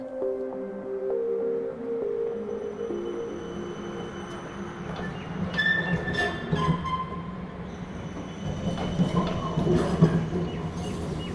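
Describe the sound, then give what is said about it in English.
City street ambience on Swanston Street, Melbourne, on an overcast, wintry day: a steady low rumble of traffic with a passing tram or rail vehicle, brief metallic squeals and scattered clatter, moderately loud throughout with no one speaking. “I'm in Swanston Street and I'm about to walk into the Ian Potter Gallery at the University of Melbourne.”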